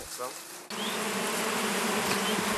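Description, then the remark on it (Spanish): A bee buzzes steadily in the lavender fields of Balansol in Provence, France, a sustained droning hum that holds on without a break after a brief quieter moment at the start, set against a soft outdoor background. “Vamos a tratar de atrapar una abeja.”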